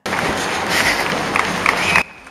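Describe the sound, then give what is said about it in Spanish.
A dense, steady patter of many runners' footsteps on dirt and asphalt, blending into a continuous rushing texture with a few sharper steps, cutting off abruptly near the end. “La suma de todas esas pisadas sobre la tierra y asfalto termina creando una canción muy nuestra”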